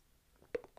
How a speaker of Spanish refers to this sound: Tome un traguito del agua solar.